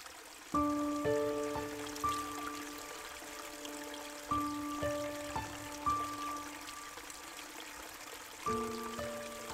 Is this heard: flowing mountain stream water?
yes